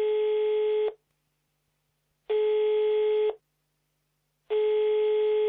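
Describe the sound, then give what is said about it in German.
A telephone ringback tone while a call to a grandmother is being placed: three steady, fairly loud beeps about a second each, separated by short silent pauses, with no voices. “Denn auf die Frage, was wird eigentlich gebaut hier im Kaiserpark, da hat einer der Befragten den Telefonjoker gezogen und die Oma angerufen.”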